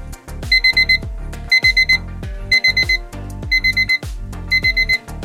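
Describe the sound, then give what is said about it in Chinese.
A reminder alarm signalling that it is time to rest the eyes rings in five repeating bursts, each a quick run of bright, high electronic beeps over a low pulsing tone, with no voices. “原来是眼睛休息时间到了，首席魔法师必须要下线了。”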